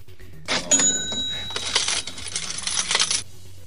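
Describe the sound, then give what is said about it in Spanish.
A cash register cha-ching rings out alone: a bright bell tone followed by a burst of jingling coins spilling into a drawer, loud, lasting under three seconds. “tenés el ruido, Maxi, siempre tenés que tener, cuando tenemos las noticias hay que tener el chick”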